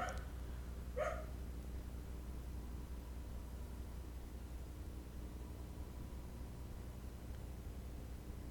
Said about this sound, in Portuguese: Ó que eu, assim que eu apertei o botão, o cachorro começou a latir, meu. tá. Nossa senhora, meu. Calma aí que eu ativei o sentido do cachorro ali do lado.